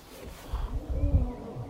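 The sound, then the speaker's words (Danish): A lion roars, a low, rumbling growl rising and falling faintly for about a second over quiet background noise; the lion Aslan roaring. “kan høre, jeg ved ikke, om I kan høre det, men jeg kan høre Aslan og brøle lige nu.”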